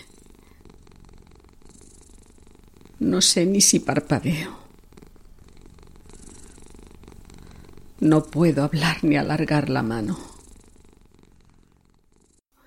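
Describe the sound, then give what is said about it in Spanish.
A cat purrs steadily beside a person's right ear, growing louder, a low continuous rumble running the whole time, while a person speaks over it in two brief stretches. “ronronea junto a mi oído derecho cada vez más fuerte, pero yo no consigo moverme.”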